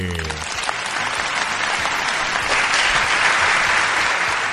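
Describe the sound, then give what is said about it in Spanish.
Sustained applause from an audience standing on its feet, a dense steady wash of many hands clapping that swells slightly louder toward the end, with a brief voice fragment at the very start. “Ah, pero tiene más aplausos ahora.”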